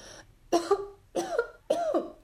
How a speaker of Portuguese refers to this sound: Não é nada, papai, é só uma tosse.